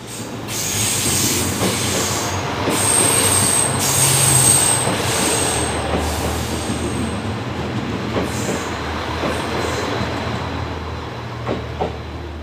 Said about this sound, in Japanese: それでは JR 名古屋駅から2022年7月にデビューをした新型車両 HC85 系の特急ひだで出発です